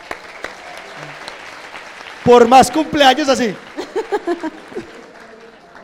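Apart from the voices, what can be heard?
audience applause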